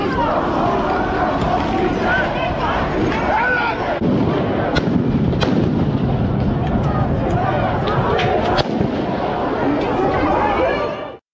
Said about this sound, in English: Police responded with tear gas and stun grenades.